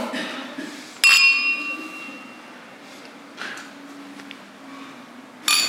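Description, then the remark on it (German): Glasses clink together in a bright toast, the sharp chime ringing out and slowly fading, followed by softer clinks a few seconds later while voices murmur quietly in the background. “Auf das stoßen wir an.”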